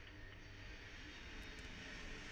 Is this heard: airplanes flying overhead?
yes